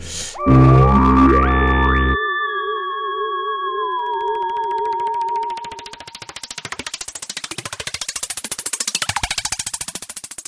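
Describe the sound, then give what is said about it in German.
A spoiler-alert jingle: a loud synthetic burst, then warbling held tones that fade into a rapid, pulsing electronic texture with sweeping pitch. No one speaks over it. “Dann okay, ja gesagt, von jetzt Spoiler, an Spoiler, Spoiler Alarm. Jingle.”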